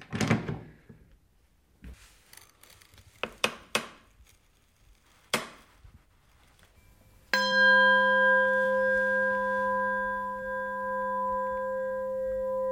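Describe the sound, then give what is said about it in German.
A smith strikes his newly bent S-bend metal tube, 1 mm wall thickness, for a serpent ('singing snake') instrument, to check it for cracks. After a few short knocks and clatters of handling, it rings out with a clear, pure, sustained tone that hangs steadily for several seconds. “Der helle, reine Klang bestätigt ihm, dass sein Bogen keinen Riss hat.”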